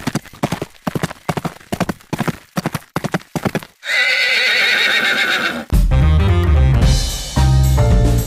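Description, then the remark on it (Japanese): Rapid hoofbeats clip-clop in a steady rhythm, then a loud, drawn-out horse whinny rings out, followed by music swelling in underneath. “馬が舞うスタートです”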